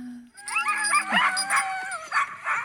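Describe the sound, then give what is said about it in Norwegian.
A husky lets out a quick run of excited, happy, high-pitched yips and whining cries, fairly loud, overlapping in an eager, wavering chorus with no speech. “Den magiske Huskyen”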